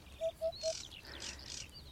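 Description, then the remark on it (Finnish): A Eurasian hoopoe gives three soft, low, evenly spaced hooting notes in quick succession, while other small birds chirp and twitter faintly in the background. “Viikon luontoääni: Harjalintu”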